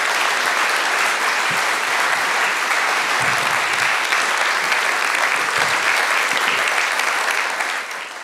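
Loud, sustained audience applause for a speaker as he comes to the front, with dense, steady clapping from many hands that holds an even level for about eight seconds before easing slightly at the end.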